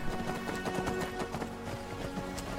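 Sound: horse hooves clip-clopping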